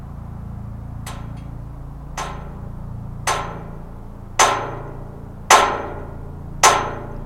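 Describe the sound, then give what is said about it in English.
Six sharp metallic strikes on a corner where four metal pieces were welded together, at 1 a.m., land at a steady, even pace, each ringing briefly before decaying, growing louder toward the end over a low background hum. “A corner where four metal pieces were welded together led to this rhythmic cacophony.”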